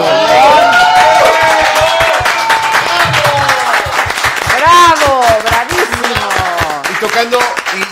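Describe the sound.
An audience claps loudly and steadily, with a brisk, roughly rhythmic beat, while voices cheer and call out over the clapping for the whole stretch.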